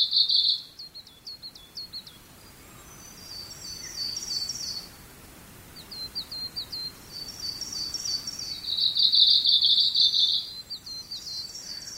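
A Kamchatka leaf warbler in Minamimaki Village, Nagano Prefecture, Japan, sings repeated high, buzzy, insect-like phrases in short rhythmic bursts with brief pauses between, over a soft steady outdoor background hiss.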